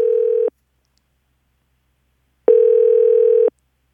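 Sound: telephone dial tone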